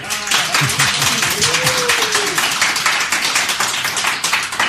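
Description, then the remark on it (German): Loud, dense applause from a sizeable live audience in Munich fills the whole stretch, steady rapid clapping with some whoops and a rising cheer mixed in, continuous. “Und wir haben ganz, ganz viel Publikum.”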